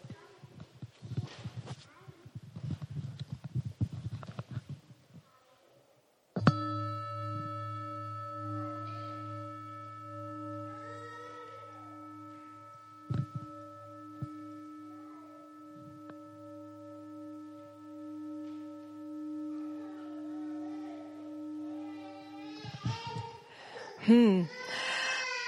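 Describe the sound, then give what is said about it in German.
A singing bowl is struck once during a church sermon and rings out in a long, steady hum with layered overtones, slowly fading for about sixteen seconds after someone speaks. A brief warbling sound follows. “So, jetzt wollen wir nochmal ganz gut hören, wie lang eigentlich die Schale nachklingt.”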